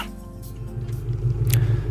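vehicle, car idling

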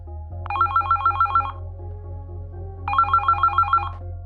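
signal or alarm, telephone ringing

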